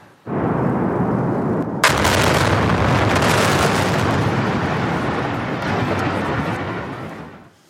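A building implosion, a series of demolition explosions bringing buildings down: a deep, loud rumble erupts, a sharp blast cracks through, and a sustained roar with crackling bursts follows before easing off at the end. No one speaks.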